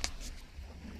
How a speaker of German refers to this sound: Wir sind momentan im Süden Frankreichs am Strand. Man kann es sehr gut am Meeresrauschen hören.